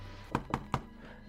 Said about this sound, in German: Ich trete vor und klopfe an. Klopf's an.